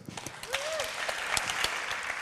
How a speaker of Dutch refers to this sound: Applaus voor Esther.